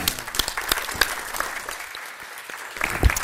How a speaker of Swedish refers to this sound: En applåd.